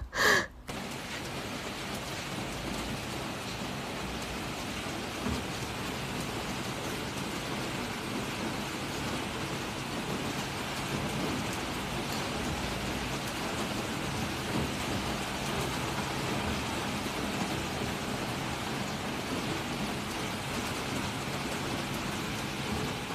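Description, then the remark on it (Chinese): Heavy rain at night on May 21, recorded from a balcony, pours down in a steady, dense hiss for the whole stretch, opening with a brief sharp knock. No voices, just the constant wash of rainfall. “第一段是五月二十一号的晚上下了大雨，那天晚上雨特别大，然后我就从床上爬起来去了阳台录的雨的声音。”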